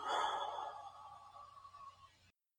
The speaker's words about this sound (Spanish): Vamos a inhalar profundamente. Exhalamos.